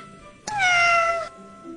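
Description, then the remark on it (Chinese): A single cat meow, loud and clear, lasting under a second, with a bright, tonal cry that slides gently downward in pitch before cutting off into quiet. “轰隆轰隆，喵！”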